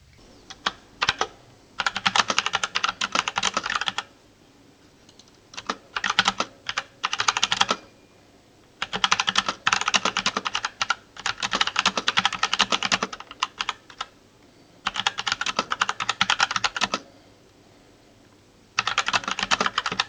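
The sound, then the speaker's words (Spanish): Rapid keyboard typing clatters in bursts of several seconds, separated by short pauses, with crisp clicky keystrokes and no voices, recorded in an office. “Si puedo, os pondré una, muestra del ruido que hace, de este chaca chaca que os he comentado, a ver si puedo grabar un poco ahora en la oficina, si no hay mucho ruido, y, veis realmente el, el ruido que puede hacer.”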